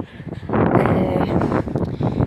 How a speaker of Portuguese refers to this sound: A melhor forma de se começar um podcast é com medo do celular falhar e eu não conseguir gravar tudo e, e com um barulho muito forte de vento, porque vento fala, né?